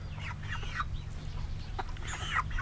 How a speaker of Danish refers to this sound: Og så har vi slagtkyllinger, og så samtidig nogle hønker. Det afløser de gamle høns.